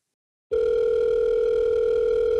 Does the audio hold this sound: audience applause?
no